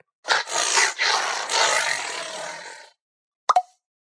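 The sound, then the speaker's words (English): A harsh, angry tiger roar rumbles for over two seconds, loud, raspy and breathy with a few surges, then stops; a quick double pop follows after a short silence. “The tiger looks really mad.”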